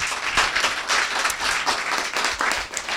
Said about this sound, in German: Jawohl, das ist mal einen dicken Applaus wert.